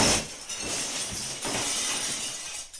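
Glass shatters loudly, a sharp crash followed by a long spill of tinkling, scattering shards that keeps clattering for a couple of seconds before cutting off.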